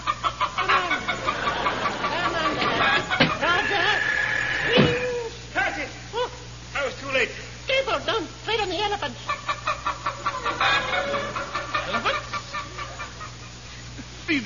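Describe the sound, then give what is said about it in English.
Chickens cluck and squawk in a busy, agitated flurry, with sharp overlapping calls and rapid bursts, over a steady low hum. “chickens. No wonder they wouldn't lay.”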